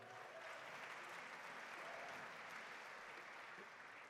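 Steady audience applause fills the whole stretch, a dense, even wash of many hands clapping at a constant loudness with no voices breaking through.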